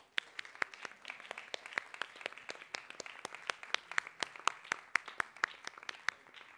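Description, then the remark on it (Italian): A crowd applauds steadily for people who lead groups, teach children or serve on teams, many hands clapping in a dense, continuous patter with sharp individual claps standing out, fairly quiet, with no voices over it. “Facciamo un applauso per queste persone, per favore.”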